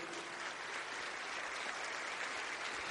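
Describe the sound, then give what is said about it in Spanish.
An audience at an evening church service applauds the Lord together, a dense, steady wash of clapping that holds at an even level for the full three seconds with no voices standing out. “¿Cuántos le pueden dar un aplauso al Señor en esta noche?”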